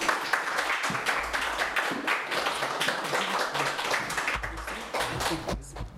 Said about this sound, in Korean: 우리 박수로 두 분을 환영하고 또 강사님 앞으로 모시겠습니다. 다시 한번 박수하겠습니다.